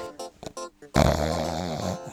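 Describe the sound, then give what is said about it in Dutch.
A dog gives one loud, rough, drawn-out snort lasting about a second, after a few softer, brief vocal sounds. “Dat is onze hond.”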